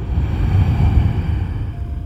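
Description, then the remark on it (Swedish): A long, deep breath out during a guided breathing exercise of three deep breaths: a steady breathy rush with a low, rumbling edge that lasts about two seconds and eases slightly at the end. Nobody speaks. “Andas ut.”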